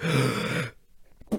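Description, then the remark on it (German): A single loud sneeze bursts out with a voiced, breathy rush lasting over half a second, then trails into quiet with a faint breath or rustle near the end. “Warte, ich muss niesen.”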